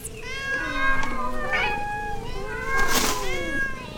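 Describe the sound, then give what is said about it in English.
A chorus of cats meowing together, many overlapping high, drawn-out yowls layered on top of one another, loud, with a brief sharp burst near the end. “It's cat heaven!”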